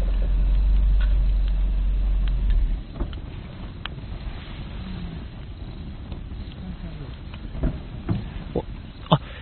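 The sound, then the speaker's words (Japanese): A car engine rumbles low and steady for a few seconds as a car is brought into a nearly empty campsite at night, then cuts off, leaving a quiet outdoor night scene at the campsite, with a campfire burning under a starry sky and faint scattered clicks and rustles. “車を持ってきましたね。”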